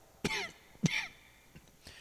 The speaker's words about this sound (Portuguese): Vocês me desculpem essa tosse chata. Daqui a pouco ela para.